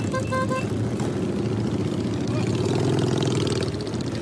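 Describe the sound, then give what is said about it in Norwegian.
Loud, steady engine rumble from the motorcycles of a motorcycle club in Baghdad, Iraq, with a brief horn-like toot at the start and a revving swell later on. “Og ikke bare pga. sine brummende tohjulinger og svarte skinnjakker.”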